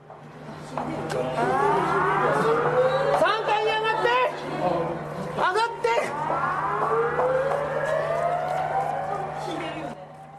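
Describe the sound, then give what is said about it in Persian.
A tsunami warning siren wails from loudspeakers in a city right by the sea, warning of an approaching tsunami, its pitch repeatedly climbing in long, loud rising sweeps over a steady low hum, echoing as if across open streets. “آژیر سونامی از بلنگوهای شهر پخش میشد چون بیشتر این شهرها چسبیدن به دریا اینطوری نیست که شهرها فاصلهشون با دریا زیاد باشه حالا سونامی هم بیاد کوتا برسه به شهر نه از این خبرها نیست برسه شهر رو با خودش میبره پیام آژیرها برای مردم روشن بود”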